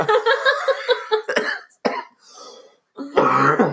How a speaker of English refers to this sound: I'm also I have a cough, so kind of sick. Yeah, so I'm kind of sick.